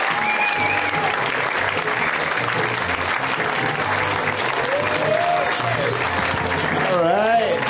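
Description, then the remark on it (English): A crowd applauds loudly and steadily as the Sklar Brothers come out on stage as returning guests of the show, a dense wash of clapping with cheers and whoops rising over it, sustained for the whole stretch without letting up. “Uh, guys, let's hear it right now for the Sklar Brothers.”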